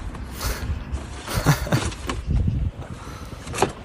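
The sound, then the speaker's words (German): Crinkling and rustling of paper being crammed into a very full trash bin in Madrid, a steady scrunching texture broken by a few sharper crackles and thumps, with no one speaking. “Äh, so ungefähr hörte sich das an, wie ich ja vor diesem Mülleimer stehe und ähm, das Papier eben einräume.”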